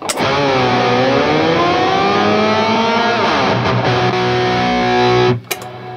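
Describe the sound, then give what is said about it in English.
A loud, sustained electric guitar tone run through a pedal board of effects, including a Super Shifter, swells and bends in pitch. Its dense harmonics rise and shimmer as the reverb decay is left to ring into the rise, used as a transition, then it cuts off abruptly near the end. “so super shifter always there so I can do like uh throw on a couple effects here like I'll use this to transition some parts so like I'll, I'll let the decay of like the reverb kind of go so like the rise will”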